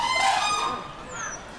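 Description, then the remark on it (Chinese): A crane (xianhe) at a zoo gives a loud, honking call rich in harmonics, holding briefly before fading, followed by a fainter second call and a thin high descending note. “仙鹤应该是。”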